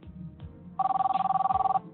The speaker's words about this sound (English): And then my cell phone rang again. And I'm like, I'm not going to answer it.